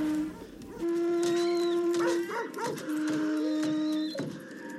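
A seashell, blown like a horn by a girl, sounds in long, steady low blasts: a brief note, then two sustained tones of over a second each, rich and buzzy, set against busy background sounds.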